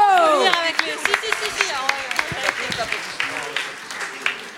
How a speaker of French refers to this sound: On les applaudit Bravo.